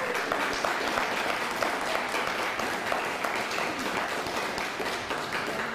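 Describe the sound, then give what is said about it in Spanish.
Sustained audience applause for viewers in Uruguay, a dense steady wash of many hands clapping at a fairly even loudness for several seconds, with no talking over it. “Un fuerte aplauso, Uruguay.”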